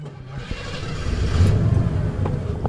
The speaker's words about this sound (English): cranks up the pickup truck.